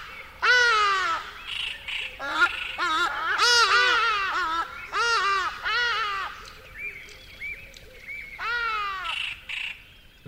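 Ibises call repeatedly in loud, harsh, nasal honks as they fly by over a dry riverbed in the bush at night, several birds overlapping in irregular bursts before a last few calls near the end, with no talking.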